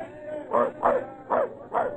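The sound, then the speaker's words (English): A dog aboard a ship barks four times in a steady, evenly spaced rhythm, each bark short and fairly loud, over a low background hum. “Get that dog below deck out of the way!”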